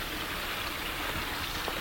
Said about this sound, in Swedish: eh, bäckens brus här inunder. Men den ligger så djupt nere så att man kan knappast komma ner till vattnet och känna på det.